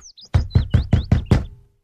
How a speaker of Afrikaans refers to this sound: Na 'n hele ruk sien hy 'n klein huisie voor hom. Hy loop versigtig nader en klop aan die deur.